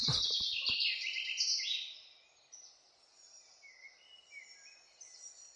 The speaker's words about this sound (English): Let's have some uh, bird song now.